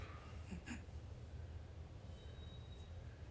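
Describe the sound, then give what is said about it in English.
A train rumbles low and steady, and a thin, high-pitched brake squeal rises briefly near the end as the train slows to a stop. No one speaks. “What the hell is that screeching sound? That would be the train stopping.”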